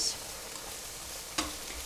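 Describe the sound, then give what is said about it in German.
Steady sizzling of a vegetable curry in a pan, a continuous crackling hiss at moderate volume with a brief clink or stir sound partway through, no talking. “Ich lasse das gerne jetzt einfach noch so einen Moment vor sich hin brutzeln, bevor wir dann mit den nächsten Zutaten beginnen.”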